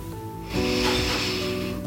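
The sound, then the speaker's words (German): A long, deep breath drawn in through the nose into the belly during a guided breathing exercise, steady, with an airy rushing texture over a soft sustained musical tone in the background. “Wir schließen nun gemeinsam unsere Augen und atmen durch die Nase tief ein in unseren Bauch”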